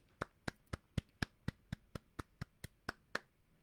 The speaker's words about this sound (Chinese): 好，先给大家拍拍手，太棒了。